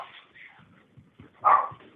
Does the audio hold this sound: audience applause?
no